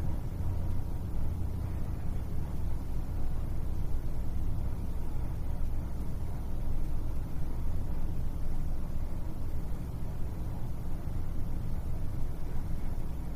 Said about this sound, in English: direct your attention to the sound of the air conditioning and the traffic outside.